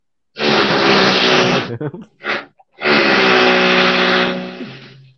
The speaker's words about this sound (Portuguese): Esse barulho aí é as escavadeiras, entendeu?